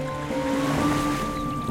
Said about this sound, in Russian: Подошли к морю. Вода в море запенилась, забурлила и отхлынула от берега.